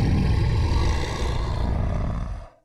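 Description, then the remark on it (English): A man's voice imitates a bear growl: one long, low, rumbling roar held for over two seconds at steady loudness, then cutting off abruptly. No words are spoken. “And all I do is I just I just growl.”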